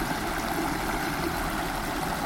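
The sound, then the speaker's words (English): A tiny waterfall on the River Frome in Gloucestershire, England, rushes with a steady, continuous splashing hiss, even throughout, with no voices. “I found a, a tiny, windsy waterfall at the river.”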